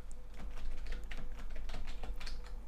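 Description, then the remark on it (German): Rapid, irregular clicking of keys on a computer keyboard as someone searches online, steady for a few seconds, with a low background hum and no talking. “Jetzt googelst du auch noch.”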